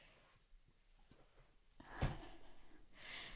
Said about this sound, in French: Euh, je, reprends mon souffle, évidemment, C'est ce que je suis euh, très essoufflée.